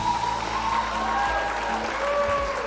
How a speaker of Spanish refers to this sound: Los aplausos. Por favor, dejar unos aplausos para mi queridísima Betty.